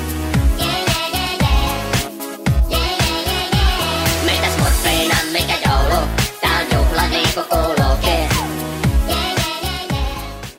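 An upbeat Christmas-themed pop cover from a Smurfs album (an album), with squeaky, sped-up cartoonish singing over a steady, punchy beat, playing loud and continuous from start to finish.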